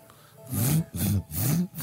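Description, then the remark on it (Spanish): A person vocally imitates the sound of a zipper, making three quick raspy, breathy bursts in a steady back-and-forth rhythm, fairly loud. “Tenéis que imitar ruidos que hacen eh, objetos de la vida cotidiana y a ver quién lo hace mejor. Empezamos con una cremallera.”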